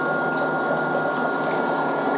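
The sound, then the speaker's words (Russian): A foot spa runs on its third, combined mode of vibration and bubble massage: a steady, even mechanical buzz blended with a constant hiss of churning bubbles, holding one level throughout with no voices. “Включается третий режим, совмещенный, вибрация и пузырьковый массаж.”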